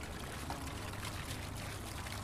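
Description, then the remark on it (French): A steady stream of 2018 single malt whisky pours continuously from a pierced cask into a large trough in a whisky warehouse, a dense splashing gush that stays even throughout, with no voices. “Est-ce que vous entendez le bruit du whisky qui s'écoule”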